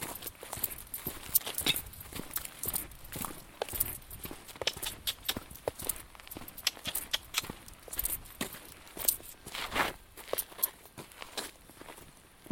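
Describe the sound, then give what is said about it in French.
Steady footsteps crunch along outdoors at a walking pace, each step a sharp transient repeating in an even rhythm for the whole stretch, with no voices. “En attendant, je marche encore.”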